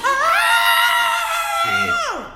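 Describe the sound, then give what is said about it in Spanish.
A person imitates a rock singer's shout: one loud, high, sustained scream held for nearly two seconds before sliding down in pitch at the end, with a faint voice briefly underneath. “pero tenían tan buena vibra y el cantante se echó un grito, o sea, porque toca, tocaban como twist y rock así viejito, pero se echó un grito y todo el mundo, ¡Eh!”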